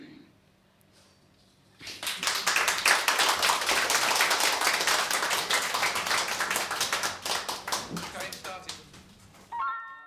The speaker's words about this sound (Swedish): Applåder och jubel där.